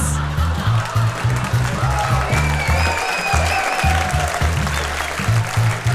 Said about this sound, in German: Applaus!